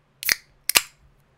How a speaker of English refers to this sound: that was the sound of a can of liquid death mountain water opening